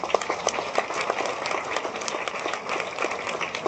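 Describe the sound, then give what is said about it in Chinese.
Audience applause fills a conference hall at a venue in Taichung, Taiwan: dense, steady clapping from many hands, a continuous crackling patter of sharp claps that stays fairly even in loudness throughout, with no voices over it. “给大家一个掌声，好不好？”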